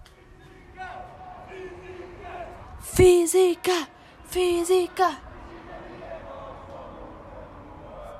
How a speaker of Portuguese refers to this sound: Malta, como estão a perceber, estão a ouvir gritos académicos. Porque eu sei que o meu, o meu podcast é super aleatório, mas devem estar a ouvir gritos académicos porque eu estou a gravar isto. Eh, digamos que de madrugada, estão a ver?